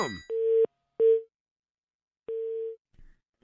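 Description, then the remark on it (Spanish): A telephone line tone of three steady, medium-pitched beeps with uneven gaps, the kind heard when a call fails to connect, as the phone lines are opened. It is loud, with a faint click at the start and no talking. “No, bueno, pues no sé qué onda con los teléfonos.”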